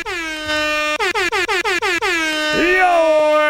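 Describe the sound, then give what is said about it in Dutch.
A loud air horn blares, then sounds in a quick series of short rhythmic blasts before one long sustained blast that bends downward in pitch and then holds. “Mag ik een toeter?”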